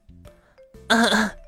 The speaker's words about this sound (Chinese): 麋鹿老师走上了讲台，清了清嗓子